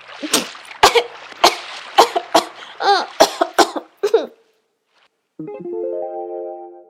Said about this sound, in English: He puts on swimming gear, lies in the tub, and when Mom was not looking, he sucked some water and blew it out. Water got into his nose, and Yo Yo started coughing.